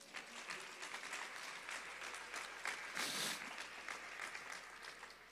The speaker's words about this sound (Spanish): ¿Cuánto le da un aplauso a Dios, hermano?